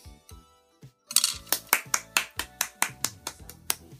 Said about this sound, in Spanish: No, iba a aplaudir. No, era la idea.